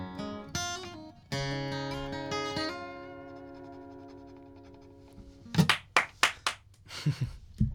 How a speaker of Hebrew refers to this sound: איפה מחיאות הכפיים? יש לנו פה קהל, ואנחנו לא... זה, או... לא, אנשים יחשבו שאנחנו פה לבד